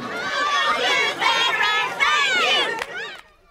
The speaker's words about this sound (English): With the kids chanting their thanks to the veterans and the high school bands, and the crowds lining either side of the street, you almost had a feeling of how it used to be.